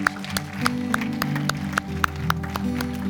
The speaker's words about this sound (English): Now let's give him a clap offering. Would you just thank him? Thank you.